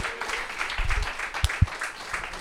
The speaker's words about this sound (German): Großen Applaus für Flo Kochs.